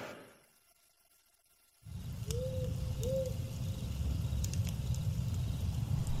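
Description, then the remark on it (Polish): After a brief near-silent start, forest ambience fades in with a campfire crackling over a steady low rumble, sharp pops scattered throughout, and a couple of short bird whistles early on. “No i pojawił się las, pojawiło się ognisko, pojawiłem się ja.”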